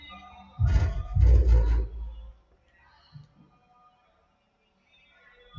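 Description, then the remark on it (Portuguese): Booming, bass-heavy funk music blares for a couple of seconds from a tuned car passing on the street, swelling and fading, followed by a quiet background with faint sounds. “É o cara passando com um carro tunado na rua”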